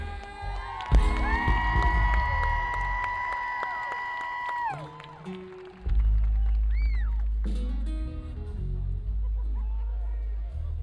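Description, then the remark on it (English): A concert crowd cheers loudly for a band member being introduced, with long, piercing whistles and whoops over the din for several seconds, then the noise drops and another rough wave of crowd sound rises and carries on. “So brothers and sisters, do loud, do proud.”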